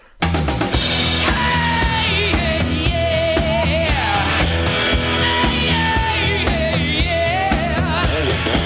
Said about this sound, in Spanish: Esto es rock and roll puro con, con toques de blues.